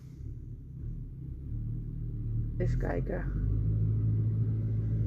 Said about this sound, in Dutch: Oh, wacht. Dan komt er een hele grote vrachtwagen aangereden. Maar die kan er volgens mij wel langs, hoop ik, een tractor.